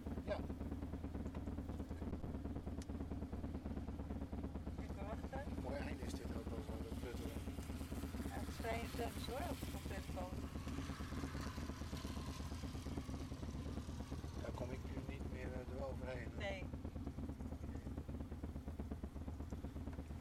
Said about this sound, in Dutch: En, eh, oh, daar is de, daar is de motor.